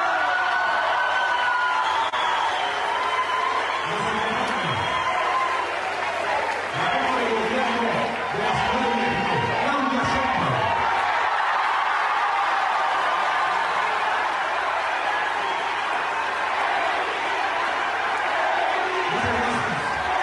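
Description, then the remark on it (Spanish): At the Morena party's National Congress, a crowd applauds steadily for the Secretary of Gobernación, Augusto López, for the full stretch, a dense, loud wash of clapping with cheers and shouted voices rising out of it now and then. “Hubo hasta aplausómetro.”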